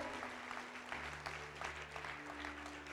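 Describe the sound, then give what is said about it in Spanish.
An audience claps steadily for a few seconds, giving God a strong round of applause for the hands that were raised, a dense, sustained patter of many hands with a low hum of sustained tones underneath and no one speaking. “¿Por qué no le damos un aplauso fuerte a Dios por estas manos que se levantaron?”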